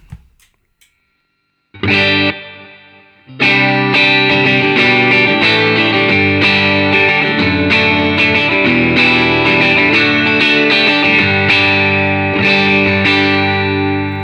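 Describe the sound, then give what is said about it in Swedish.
An electric guitar, sounding like a more muscular Telecaster with extra mid-punch, played with the middle pickup position selected: a short strummed chord, a pause, then loud sustained chords with a thick, slightly driven tone and rich harmonics. No talking. “Och lite äh. mera mid-punch. Ja. ja. Eh, mellanläget då.”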